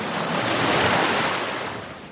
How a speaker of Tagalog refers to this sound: Habang lumalalim na ang natatahak ko, ay medyo malakas na rin ang alon na tumatama sa aking bangka.